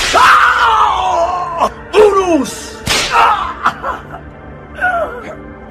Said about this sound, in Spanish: levantó su flagrum de triple cola lanzando un terrorífico latigazo sobre la espalda de Jesús